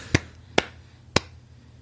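A few sharp hand claps, four in all, crisp and fairly loud, spaced slightly unevenly over about two seconds, with a quiet low hum between them and no voices.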